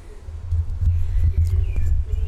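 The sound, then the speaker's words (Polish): Wind buffets an outdoor microphone aimed out past a balcony, with no windscreen fitted, producing a loud, continuous low rumble that swells and dips in gusts, with faint bird chirps in the background. “Wiatr wieje. Mikrofon nie ma w zestawie żadnej osłony przeciwwiatrowej, co mnie trochę dziwi, ale nie ma.”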